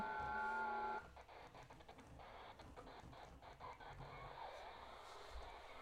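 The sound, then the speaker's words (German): Garbled, distorted shortwave radio audio in single-sideband mode, upper sideband (USB), opening with steady whistling tones, then turning into choppy, buzzing, hissy noise at a fairly even, moderate level with no clear talk. “Jetzt bin ich auf USB. Ja, das hört sich dann ein bisschen verzerrt an.”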